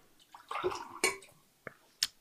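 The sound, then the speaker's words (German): Water splashes and gurgles as it is poured into glasses, served to the four people at the table, followed by a few sharp, bright clinks of glassware in otherwise quiet surroundings. “Okay, jetzt bekommen wir auch noch Wasser, vielleicht sogar mit Glück alle vier.”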